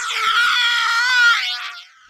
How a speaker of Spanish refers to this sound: Los sonidos de la guerra son gritos incesantes de las víctimas.